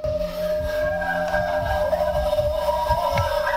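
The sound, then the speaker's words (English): Coyotes howl, their drawn-out, wavering cries overlapping into a steady chorus against a low rumbling background. No one speaks. “you hear the coyotes in the background there”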